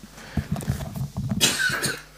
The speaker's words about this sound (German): Ich kann dich kurz muten, wenn du husten möchtest.